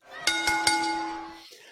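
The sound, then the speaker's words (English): A bell struck three times in quick succession, its bright metallic ring sustaining between hits before cutting off abruptly; no one speaks. “Ring that bell, baby.”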